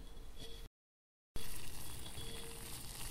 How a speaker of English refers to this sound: can you hear it? I brought uh, my pot to a boil. And now I'm going to put my scrub brush in.